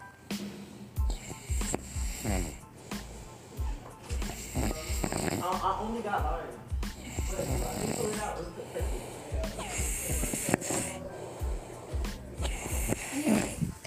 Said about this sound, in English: snoring over my podcast and shit. Listen, listen, listen.